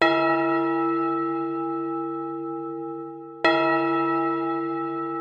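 Two deep, resonant church bell strikes, the second arriving about three and a half seconds after the first, each with a rich ringing tone that hums on and fades slowly. No voices.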